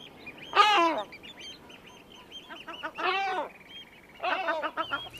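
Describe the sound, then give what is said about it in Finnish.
Three loud, hoarse bird calls ring out one after another, each a harsh, harmonic honking burst, with shorter clipped barks between them against faint background noise. Sounds like great black-backed gulls calling. “Kun saaristo on vielä äänetön, merilokkien möreänkäheet huudot, haukahdukset ja kaklatukset ovat komeaa kuultavaa.”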